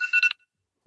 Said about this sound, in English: Oh, I'm so sorry. That was my alarm because I was taking a nap earlier.